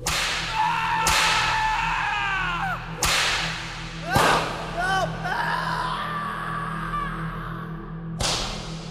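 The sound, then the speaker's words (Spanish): Loud, sharp whip cracks split the air about four times at uneven intervals as a servant is flogged as punishment, while he moans and cries out between the lashes over a low steady hum. “Los latigazos que le dieron propinados al sirviente negro se oían desde el interior de la casa hasta el callejón de los tamarindos.”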